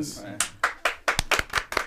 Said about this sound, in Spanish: Un aplauso, un aplauso.